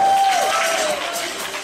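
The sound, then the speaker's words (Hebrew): A crowd at a dance competition in Eilat applauds and cheers loudly and steadily, a dense wash of clapping with a thin whistle-like tone rising above it at the start. “תנו להם כפיים, בבקשה.”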